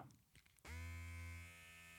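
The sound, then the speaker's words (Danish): A brief click, then a Manscaped Lawn Mower 4.0 electric body hair trimmer from the fourth-generation Performance Package switches on and buzzes steadily with a low, rich harmonic drone that stays loud, easing slightly in level toward the end. “Så nu skal jeg lige have tændt for den her.”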